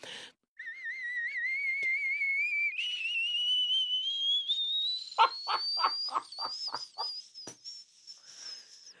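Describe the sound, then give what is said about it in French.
A woman imitates a whistling kettle: a wavering high whistle that climbs steadily in pitch, joined midway by a series of breathy, sputtering puffs before it trails off. “Et la bouilloire, par contre, on aimerait bien la voir, par contre.”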